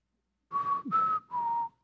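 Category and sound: human body sound, human whistling a tune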